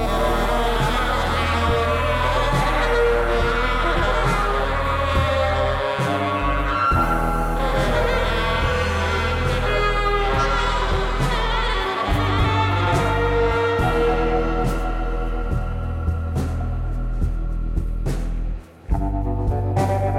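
A trio plays continuously and loudly, with a prominent bass line shifting under layered instruments and crisp percussive hits, broken only by a very short dropout near the end. No one speaks.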